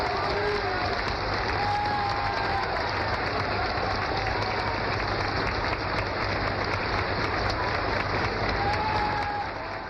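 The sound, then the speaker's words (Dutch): Loud, sustained applause from an audience, a dense steady clatter of many hands clapping throughout, with a few faint whistles or voices rising above it. “Wat een applauskruis, hè?”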